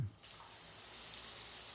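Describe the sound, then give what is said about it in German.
After a brief low thump, a steady hiss of boiling hot water spraying from a heavily limescaled shower head over a bathtub starts and runs continuously, fairly loud, with no voices. “Tapfer kämpfte sich ein Strahl kochend heißen Wassers durch die Drüsen des völlig verkalkten Duschkopfs”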